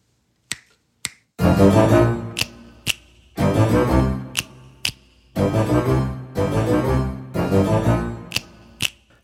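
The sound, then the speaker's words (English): Two crisp finger snaps ring out alone, then a deep, bass-heavy tune plays in repeating phrases, each pause punctuated by a pair of sharp snaps, from a classic TV theme song. “In the spirit of the classic TV theme song, I give Wednesday two finger snaps up.”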